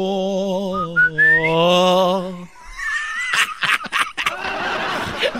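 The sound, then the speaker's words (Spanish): A person whistles a short wavering tune with an upward slide for a couple of seconds, fairly loud, then breaks into breathy snickering laughter. “Pero, eh, pero agrégale, agrégale el chiflidito ahí también está coqueto.”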